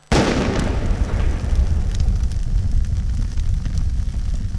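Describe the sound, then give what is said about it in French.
A sudden, loud crack of lightning striking a tree directly overhead, followed by a deep, continuous rumble with crackling that carries on for several seconds. No voices. “La toute dernière, avant que la foudre se décharge sur l'arbre juste au-dessus de moi.”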